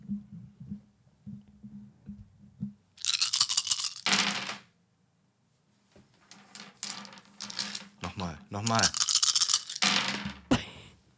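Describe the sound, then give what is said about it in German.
A full set of polyhedral dice for pen-and-paper role-playing games, including twelve-, twenty- and eight-sided dice, clatters and tumbles across a hard tabletop in two noisy bursts with a short pause between; one die falls off the table; a voice speaks briefly in between. “es sind Würfel.”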